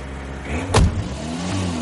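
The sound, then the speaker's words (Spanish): A small red car's engine hums low and steady as the car carries the father, with a brief rushing burst partway through before the even drone resumes. No one speaks. “El padre entra en el coche conducido por Mona.”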